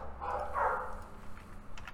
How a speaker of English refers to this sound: The dogs are really going at it.